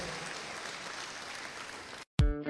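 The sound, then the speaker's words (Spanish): A church audience claps for God in steady, dense applause for about two seconds, then it cuts off abruptly and a loud burst with sustained musical tones follows. “Dele fuerte ese aplauso a Dios esta noche.”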